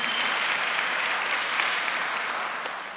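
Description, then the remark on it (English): At a church service, a room full of people claps steadily for a few seconds for a guest preacher, a dense, even patter of many hands that stays loud throughout and tapers slightly near the end. “Can we give him a round of applause, please?”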